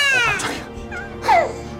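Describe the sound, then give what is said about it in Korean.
A baby lets out a piercing, shrill scream: two sharp, high wailing bursts, the first trailing off, the second rising suddenly louder. No one speaks. “갑자기 이 찢어질 듯한 아기 비명 소리가 터져 나오는 겁니다.”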